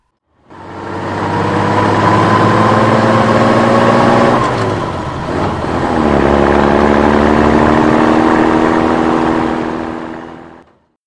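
A Dovunque truck's engine runs loud with a steady droning hum as its driver hurries along in Libya in 1939, raising a cloud of dust; it briefly dips midway as if shifting gear, then pulls on again before cutting off.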